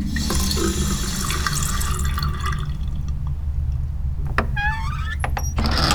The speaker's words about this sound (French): Le père de famille se rend ensuite dans la salle de bain et il se passe le visage sous l'eau.